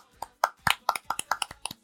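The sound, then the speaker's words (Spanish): A short, scattered burst of hand clapping applauding women: about ten sharp, bright claps at an uneven pace, moderately loud, like a few people applauding briefly. “Aplausos para ellas, dionisiacas, diosas.”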